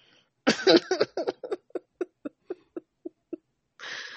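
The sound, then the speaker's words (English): A harsh fit of coughing, starting as a thick burst then breaking into a rapid series of sharp, choking hacks that slow and thin out, ending with a rough breath. “You sound like you're choking.”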